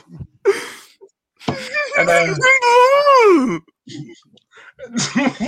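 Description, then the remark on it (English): A voice imitates Chewbacca's long, warbling Wookiee roar, a howling moan that rises and falls in pitch for about two seconds, loud, with brief vocal sounds before and after. “that was Chewbacca.”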